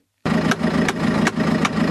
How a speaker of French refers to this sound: le long de la rue Vokzalna, le son des perceuses et des marteaux résonne dans les airs. Il y a presque un an, en mars dernier, cette artère à l'entrée de Boutcha, qui marquait la séparation avec Irpine, avait été détruite par les combats